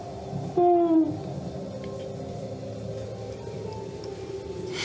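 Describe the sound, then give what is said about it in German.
A voice does a single short owl-like hoot, imitating an owl inside a cave, a clear tonal 'hoo' that dips slightly in pitch, standing out over a steady background hum and then fading away. “Eine Eule.”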